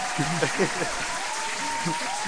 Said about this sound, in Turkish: Hadi hatta bir alkış gönderelim.